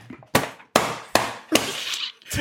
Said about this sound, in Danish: der slår bogen ned i bordet, bare lige så vores lyttere fatter uh, øh, de, de mærkelige lyde.